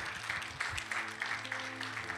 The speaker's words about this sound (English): As they come, will you guys just give them a round of applause just right here in front of me?